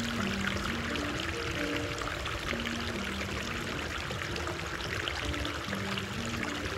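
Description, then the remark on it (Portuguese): Steady running water pours and splashes continuously in a thermal pool of a bathhouse opened in the 19th century, set in an old Renaissance-style mansion with marble walls and ceiling, with soft, gentle music playing faintly underneath. No one speaks. “Uma música bem suave se une ao som da água corrente.”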